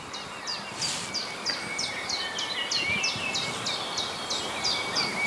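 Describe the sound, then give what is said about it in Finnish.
A common redshank calls in a steady, rapid series of sharp piping notes, repeated throughout, over a low background hiss of wind and open-air ambience, in wet, damp terrain after rain. “Joo, siellä punajalka viikkoa.”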